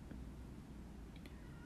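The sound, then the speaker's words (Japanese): A faint cat meow from a cat outside rises briefly over a low, steady background rumble, short and thin. “なんか外で猫ちゃんが泣いてるんだけど。”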